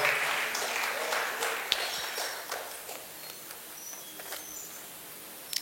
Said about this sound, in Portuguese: Fica de pé no seu lugar. Pode aplaudir Jesus, ele é digno de toda honra, glória.